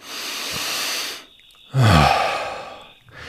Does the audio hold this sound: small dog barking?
no